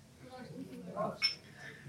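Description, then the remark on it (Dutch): Glasses of martini clink together once in a toast, a short bright ringing chime, with soft murmuring voices underneath. “Maar eerst het drankje. Ik, eh, proost jongens. Proost.”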